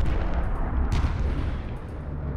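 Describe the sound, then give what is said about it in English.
Dense, continuous rumble of heavy American bombing and artillery fire on a mountain in early December, with heavy low booms rolling into one another and a sharper crack near the middle, loud throughout with no voices. “Between the 4th and the 7th, the Americans dropped £700,000 of ordnance on the mountain.”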